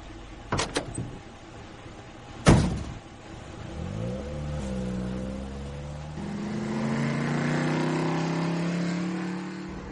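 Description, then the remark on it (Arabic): A couple of sharp thuds like car doors shutting, then a taxi bound for Maadi revs its engine and pulls away, its hum rising steadily in pitch as it accelerates. “وادي التاكس اهو مش رايح المعادي يا بيه ايوه يا سيدي رايح المعادي طب اتفضل اتفضل”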